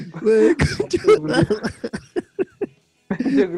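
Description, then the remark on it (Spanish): A run of short, harsh coughing bursts comes in quick succession, loud, between stretches of voiced sounds like laughter or muffled talk. “se escucha toda la tos.”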